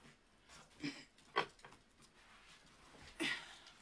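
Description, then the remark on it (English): A dog whimpers in three short, high-pitched whines spaced a few seconds apart, fairly quiet, with soft breathy noise between them. “Oh, you're gonna make me mad, dog. Move.”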